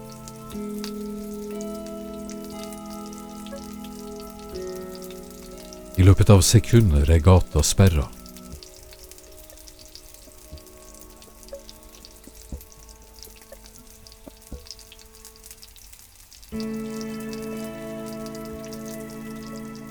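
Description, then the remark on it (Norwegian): Steady drizzling rain hisses softly throughout on a cold, wet afternoon turning to early evening, with a brief louder patch of dense pattering partway through, while a man speaks calmly over it. “Regnet siler.”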